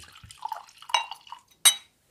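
Liquid is poured briefly into a glass as a drink is topped up, with a gurgling trickle, a few light clinks, and one sharp clink of glass near the end.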